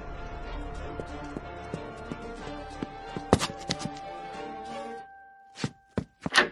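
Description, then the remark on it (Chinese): A teacher slams a classroom door shut with a loud, heavy bang, preceded by a steady run of footsteps and followed by a brief quiet and a few sharper knocks. “砰的一声，把门摔上了。”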